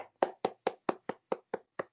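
Brief applause from what sounds like a single pair of hands: about nine sharp, evenly spaced claps in a quick steady rhythm, moderately loud, with no voices.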